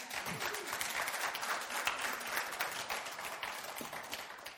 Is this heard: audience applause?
yes